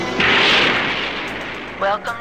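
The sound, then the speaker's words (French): A rocket ignites after a countdown in the film Future World, with a sudden loud roar, a broad rushing blast that holds steady and slowly fades, with a brief wavering tonal sound near the end. “Program the blast off sequence. Five, four, four three, three, two, two one. one. We have ignition.”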